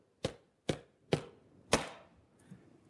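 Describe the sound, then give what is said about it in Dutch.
Four sharp knocks on a hard surface, imitating someone hammering while making something, spaced about half a second apart with the last one heavier, followed by a faint softer tap. “En ik zat zo te timmeren, op, eh, ik zat iets te maken.”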